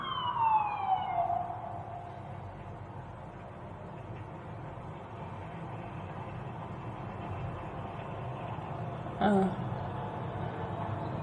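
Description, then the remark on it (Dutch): A police car siren wails briefly outside the living room window, its tone sliding downward before being switched off after a second or so as the car drives over the tram track, leaving steady traffic rumble heard from indoors, with a short clunk near the end. “politie met sirene, maar nu heeft hij de sirene uitgezet.”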